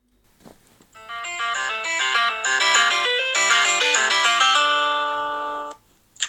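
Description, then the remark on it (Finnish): A short, bright electronic theme jingle, newly made: a chiming synth melody steps through quick rising and falling notes for about four seconds, fairly loud and alone, then cuts off abruptly. “oli tehnyt meillä aivan fantastisen, mahtavan, ihanan kihelmöillä tota, uuden tunnuspiisin.”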